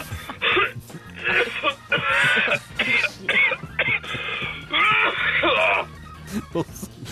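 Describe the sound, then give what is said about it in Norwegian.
Repeated heavy coughing and throat clearing in rough, irregular bursts, loud, with brief gaps between fits and no other sounds around them. “Veldig mye hosting.”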